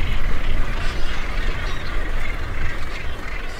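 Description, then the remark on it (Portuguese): Albatrosses and other seabirds call in the sky in short, scattered cries along the Greek coast, over a steady rumble of wind and engine noise, as if heard from a moving boat. “albatrozes e outros pássaros cantam no céu.”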